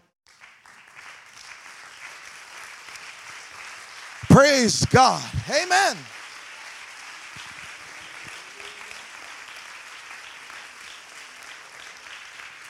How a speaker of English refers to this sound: Why don't you lay your Bibles down and just clap your hands to the Lord?